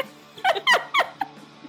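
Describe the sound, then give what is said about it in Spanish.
A dog with separation anxiety lets out a quick run of high, sliding whimpers and yelps, three strong bursts followed by a softer one, with no talking. “perdón, perdón de antemano si escuchan ladrillo porque tengo, estoy cuidando un perro, estoy cuidando el perro de mi tío y sufre de separación, ansiedad por separación.”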